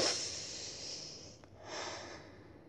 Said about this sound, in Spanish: Pero eh, e hicieron un estudio y todo para saber cómo se pronunciaba el nombre de Dios. Y era respirando. Era el sonido que hacemos al respirar.